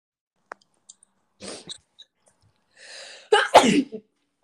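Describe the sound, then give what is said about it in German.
A single loud sneeze bursts out near the end, preceded by a sharp inhale and a few small clicks and breathy sounds; no one speaks. “Gesundheit.”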